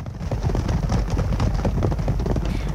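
A dense, continuous rumble of racehorses galloping on the racetrack at the annual Derby horse race in Epsom, south of London. It is loud, with rapid overlapping thuds blending into a steady drumming roar and no voices.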